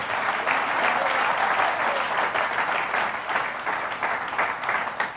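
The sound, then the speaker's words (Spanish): An audience at a church service applauds steadily after a live worship song, a dense wash of many hands clapping, sustained and fairly loud for several seconds with no speech over it. “Este, vamos a dar un aplauso, ¿sí o no?”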